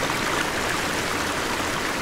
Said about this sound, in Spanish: El agua del manantial volvió a borbotear con alegría y el estanque recuperó el color turquesa.